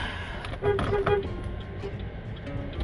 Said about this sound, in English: yeah, I honked at this guy who was on his phone while I'm recording this podcast. At least I'm paying fucking attention,